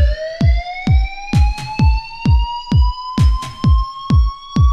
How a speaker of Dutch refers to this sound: Een, een brandalarm ging af, dus heel de zin moest ontruimd worden.